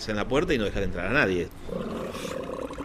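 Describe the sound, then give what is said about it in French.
Loud sea lions roar in a rapid series of rising and falling bellowing calls, then give way to a dense, noisy murmur of the herd in the background: hundreds of sea lions on a harbour quay where fishermen unload fish. “La présence de centaines de lions de mer qui bien sûr ont des besoins naturels à satisfaire sur le quai où les pêcheurs déchargent le poisson pose aussi un problème de salubrité.”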